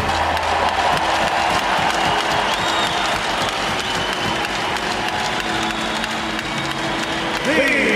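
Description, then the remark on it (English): A large arena crowd at an Anaheim Ducks NHL game applauds loudly and steadily for captain Ryan Getzlaf, number 15, marking his 1,000 games played: dense clapping blended with cheers and a constant roar of voices, with a few faint tonal sounds drifting through near the end. “Let's hear it for our captain, number 15, Ryan Getzlaff.”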